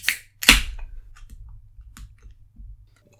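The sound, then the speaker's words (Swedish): A beer being opened: a quick metallic crack, then a loud, sharp burst of fizzing hiss that fades, followed by a few faint clicks and low rumbles. No talking. “ja, jag ska öppna en öl här.”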